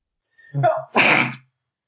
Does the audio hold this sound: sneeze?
yes